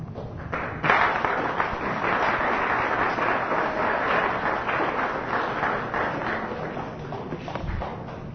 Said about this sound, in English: Thank you. You haven't heard anything yet, though. Better hold the uh, clapping.